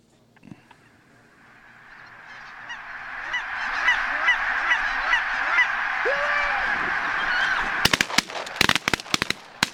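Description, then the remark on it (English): A large flock of geese honks in a dense, overlapping chorus that swells and stays loud, then a burst of sharp, loud cracks breaks through near the end. “Uh, put a beat down on the uh, on the big honkers uh, just uh, just not too long ago.”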